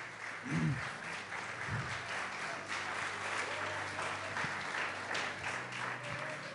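An audience claps steadily for several seconds, a dense, even wash of many hands with a few scattered voices and low murmurs underneath.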